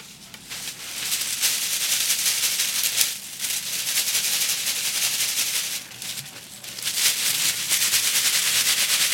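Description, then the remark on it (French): Dry seed pods filling a tree rattle against each other in the wind in a dense, continuous crackling clatter that swells in gusts with brief lulls, fairly loud, with no voices. “Et quand il y a du vent, toutes ces cosses, elles se frôlent, euh, ça fait un certain bruit et donc ça parle.”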